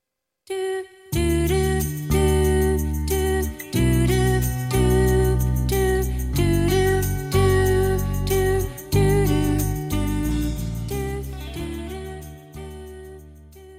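A pop rock song played on a radio show starts after a brief moment of silence and plays steadily and fairly loud, with a full band sound and sustained harmonies throughout, no talking over it.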